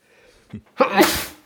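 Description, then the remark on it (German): A single loud sneeze: a quick sharp intake of breath followed by a bright, explosive burst that trails off over about half a second. “Gesundheit.”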